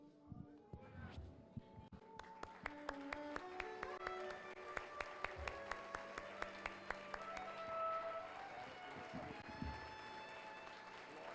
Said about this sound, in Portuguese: Creia, fica de pé e aplauda o Senhor.